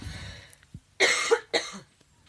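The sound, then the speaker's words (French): Two sharp, loud coughs in quick succession, the second slightly shorter, followed by a quiet breath and silence. “Je vais tousser.”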